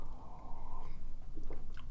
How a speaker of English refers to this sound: I forgot to take a sip of coffee before I hit record because I'm professional, so I'm gonna have a sip of coffee now.